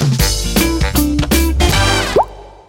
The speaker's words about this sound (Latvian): Jā, atbild ir dumpis par lielo dumpi. Putnu mēdz teikt, ka to vieglāk ir saklausīt nekā ieraudzīt. Un nu, tagad jūs zinat, kā skan dumpis. Tā balss ir ļoti interesanta. Tas ir paliela auguma putns ar spēcīgu ķermeni.